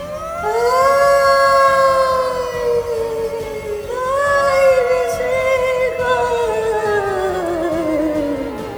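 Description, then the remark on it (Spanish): Eerie, drawn-out wailing laments rise and slowly sink in two long, loud swells, each cry sliding downward in pitch; no one speaks over them. “Esta vez ya de una manera muy intensa, lo que ahora sí preocupó a don José, porque nuevamente escuchó unos lamentos.”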